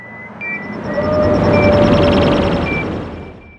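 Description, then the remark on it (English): An alternate sci-fi fighter ship flyby sound built from many different bird chirps layered on top of each other: a deep, broad rumble swells up, peaks midway and fades out, with high, thin bird-like chirps and tones layered across it. No voices. “And this version, I used uh, a bunch of different bird chirps layered on top of each other.”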